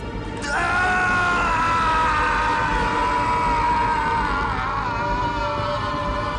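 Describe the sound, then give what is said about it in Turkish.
A man lets out a long, sustained scream of agony as the flesh is pried from his fingernail with a pen, his hand chained to a wall. It starts abruptly and holds for several seconds, loud and strained, echoing through dark dungeon corridors. “sesi zindanın karanlık dehlizlerinde yankılanıyor.”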